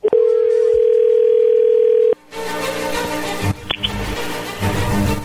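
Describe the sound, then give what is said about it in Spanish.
A telephone call ringing through: one loud, steady ringback tone holds for about two seconds, then cuts off with a click into crackly line noise and muffled background sounds. “Bueno, a ver, ya entró ahí la llamada, no haga ruido.”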